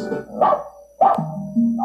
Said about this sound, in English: You have Cox's home life, so you could see why your dog is barking.